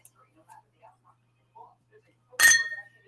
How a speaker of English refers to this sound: Oops, banging my glass into my other glass, my coffee. I'm getting water and I banged into my coffee. I apologize.